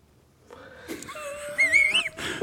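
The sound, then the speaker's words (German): A voice imitates a gurnard fish's grunting with a strained, wheezy, croaking tone that rises and wavers for about two seconds, fairly loud, with no other talk. “Und ähm, ja, da schwimmt er so rum und macht seine Geräusche.”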